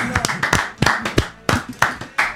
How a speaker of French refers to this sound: Oui Il y a eu des belles choses. Applaudissez.